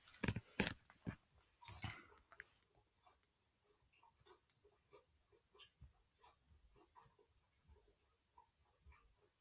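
Crunchy chewing of Cheetos mozzarella sticks, starting with a few loud bites, then a steady run of softer, wet chewing clicks and smacks, quiet, with no talking.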